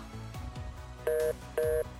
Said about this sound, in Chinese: 电话那头传来挂断的声音。